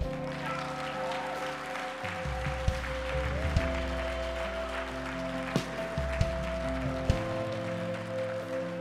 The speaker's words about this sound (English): Come on, ma'am. Come on. Come on, let's clap.